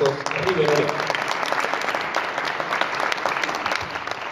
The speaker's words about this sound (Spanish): Los recibimos con fuertes aplausos.